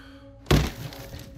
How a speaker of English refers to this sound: She's smashing her head up against the wall.